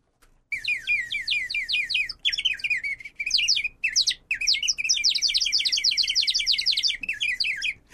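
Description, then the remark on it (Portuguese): A plastic water bird whistle filled with water warbles continuously, bubbling trills rising and falling in rapid rhythmic bursts for several seconds with brief gaps, loud, with no one talking. “Você comprava vinho doce e um passarinho de plástico grudado? É verdade, Lembra? lembro. Você colocava água, aí você, ele faz assim, ó.”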